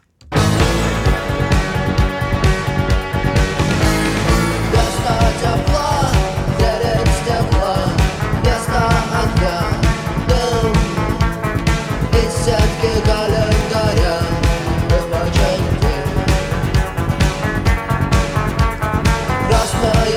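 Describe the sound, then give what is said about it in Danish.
A banned Belarusian protest song plays loud and steady for the whole stretch, a full-band recording with a driving rhythmic beat, bright layered instruments, and no one talking over it. “der var det sådan en sang, som når man skulle være rigtig fræk”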